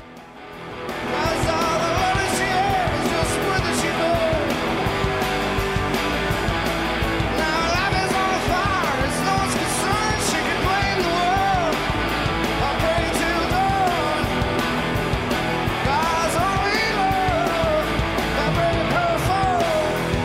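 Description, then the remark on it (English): A loud, dense rock song plays throughout, with a screaming lead vocal over distorted guitars and pounding drums, the full band driving steadily after a brief quieter opening. “Love this song. So, man, that scream. Listen to that voice.”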